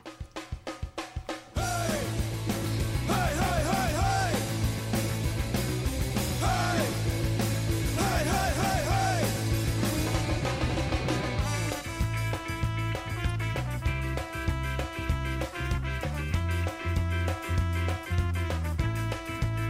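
A band's demo recording of a song, released on a re-release of an album, plays loud and continuous, with sung vocals over guitars and bass, then a steady, punchier drum beat driving the second half.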